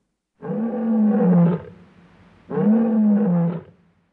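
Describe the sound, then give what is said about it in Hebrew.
A lion roars twice in a row: two loud, drawn-out growling roars, each lasting about a second, separated by a brief pause, with no talking. “יצא האריה.”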